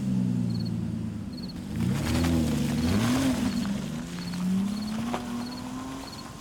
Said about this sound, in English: He jumps into his little black BMW and burns off into the night.